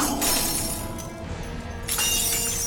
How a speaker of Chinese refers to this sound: 拿起桌上的玻璃管，向桌角扔去。电光火石的一瞬间，胖虎冲了过去，想接住那个瓶子，但他还是晚了一步。瓶子在桌角撞碎了，